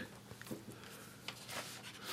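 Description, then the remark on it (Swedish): Paper rustles and shuffles as sheets are swapped, with a few brief crisp crinkles and soft rubbing over about two seconds, no voices. “Fel papper, nu har jag...”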